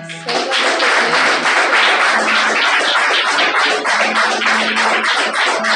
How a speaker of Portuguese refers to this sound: Aplauda o Senhor.